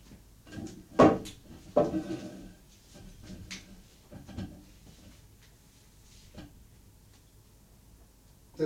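Five or so distinct mechanical clunks from a cassette deck's buttons being pressed in turn: pause on, pause off, stop, start again, then a final stop. The clunks are spaced irregularly with quiet gaps and are moderately loud.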